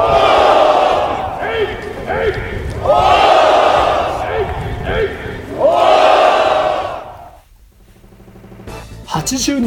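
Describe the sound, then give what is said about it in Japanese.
A band of rebel troops roars a battle cry in loud, sustained bursts, three or four long surging shouts of many voices, ending in a brief lull before another rising yell. “は声を限りに叫びました”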